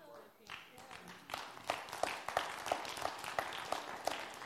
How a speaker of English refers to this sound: Yeah, there's only 65% of you clapping right now.